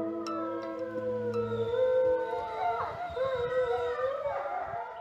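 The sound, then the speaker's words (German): Several wolves howl together in a chorus, long wavering tones overlapping and sliding up and down in pitch, clear, with no talking throughout. “Was wir hier gerade hörten, war hoffentlich ein Triumphgeheul.”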